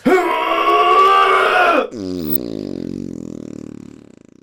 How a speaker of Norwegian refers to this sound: Jeg angrer litt på at jeg klippet den prompen så lang.